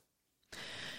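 A Pomeranian dog snoring: after a brief hush, one sudden raspy, hissing breath starts and carries on steadily to the end, with no talking.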